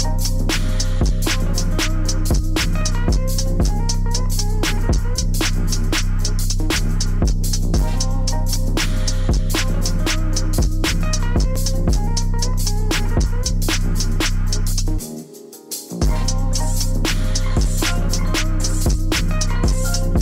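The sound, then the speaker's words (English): Music with a steady, booming deep bass sine wave droning continuously beneath crisp percussive beats. The bass and beat drop out for about a second near the end, then return. “is the bass wave like does the sine wave just not stop like it's just like ooh like what is going on”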